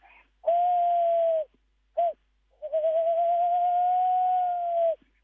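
A tawny owl hoots clearly with no other sounds: a long mellow hoot, a brief pause and short note, then a drawn-out wavering hoot lasting a couple of seconds.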